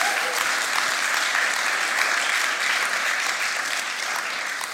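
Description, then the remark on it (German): Sustained applause from a crowd for the invited panel guests, a dense, steady patter of many hands clapping at an even loudness for several seconds, with no voices standing out. “Ihr dürft denen gerne mal einen Applaus geben dafür.”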